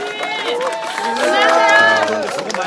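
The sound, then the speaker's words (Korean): A crowd of citizens cheering and shouting over scattered clapping as former party leader Moon Jae-in walks out surrounded by them, many overlapping voices rising and falling in a loud, continuous swell that peaks near the middle before easing slightly. “환호성이 들리는 그런 현장입니다. 박수 소리도 많이 들리고 있고요.”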